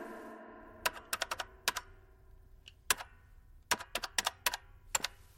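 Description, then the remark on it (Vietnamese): A male shop employee types on a computer keyboard to calculate the price of clothes: quick bursts of sharp key clicks in uneven clusters with short pauses between them, clear over a quiet background hum. “Cô bắt đầu to giọng, nhưng nam nhân viên vẫn điềm nhiên gõ máy tính một cách thuần thục để tính toán giá tiền số quần áo mà cô lấy cắp.”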